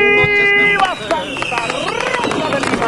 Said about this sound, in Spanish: Llegó con cohetes, morteros, silbadores.